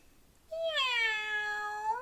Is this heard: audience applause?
no